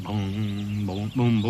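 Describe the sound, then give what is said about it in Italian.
A voice sings the melody of a song still being written, made with the mouth, using repeated wordless 'bom' syllables in sustained, clear tones that shift pitch. It is fairly loud, with no backing music. “è la musica, la faccio con la bocca adesso.”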